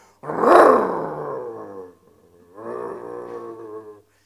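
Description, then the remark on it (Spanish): A voice imitates the loud, revving engine of a van whose catalytic converter was stolen, with a roaring growl: a strong rev that dips and tails off, a short pause, then a second, steadier rumbling rev, forceful. “Cuando usted se montaba en esa van y la prendía eh, eh, con, el desperfecto, se escuchaba luego, luego, pero fuerte, como si fuera una motora de esas grandotas y, le da el acelerón.”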